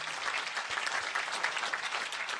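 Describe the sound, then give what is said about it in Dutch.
A crowd applauds steadily, with dense, continuous clapping from many hands that stays at an even, moderately loud level throughout, with no voices standing out. “Zullen we een applaus geven aan eh”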